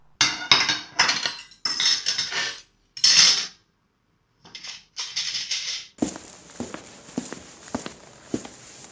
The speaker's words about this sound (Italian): Ritiri i piatti e fai servire il resto. Subito, signor.